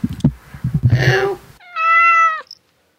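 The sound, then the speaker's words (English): A cat sound effect: a cat growls and hisses sharply, then lets out one long, drawn-out meow that holds steady before cutting off into silence. “Unfortunately, I can't get my uh-huh. cats to hiss on cue.”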